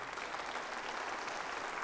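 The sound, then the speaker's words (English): Steady applause from an audience, a dense, continuous patter of many hands clapping at an even loudness throughout, with no one speaking over it. “And as much as I really do applaud, uh, uh, appreciate the applaud that you had”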